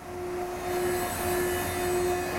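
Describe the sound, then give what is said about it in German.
A woodworking machine in a large production hall cuts barrel staves to length, angles their sides and mills tongue-and-groove joints and the groove for the barrel bottom, running with a steady, fairly loud mechanical whine over a broad rushing noise, holding a constant pitch throughout with no voices. “Die Maschine schneidet jetzt die Tauben ab, passt die Taube oben, macht links und rechts den Winkel hin und macht die Nut und Feder rein und die Nut für den Boden, sodass die Jungs dann innen nur noch zusammensetzen müssen.”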